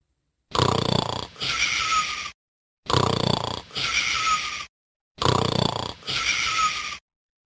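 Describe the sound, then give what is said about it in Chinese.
Loud, rumbling, thunderous snores of a sleeping giant in a castle repeat three times in a steady rhythm, each a harsh rasping inhale followed by a wheezy exhale, with brief silences between them and no talking. “一溜进城堡，杰克就听到了巨人如雷般的打呼声。”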